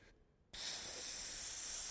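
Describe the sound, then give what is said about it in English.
A voice makes a sharp, sustained hissing sound imitating hot coals from a fireplace burning deep into a white carpet, starting abruptly after a brief pause and holding steady, fairly loud. “like burning deep down into the carpet”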